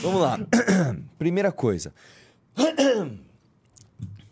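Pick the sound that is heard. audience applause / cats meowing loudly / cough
cough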